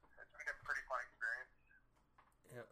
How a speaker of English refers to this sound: there's no Wi-Fi, so I had to call. So the quality's not the best.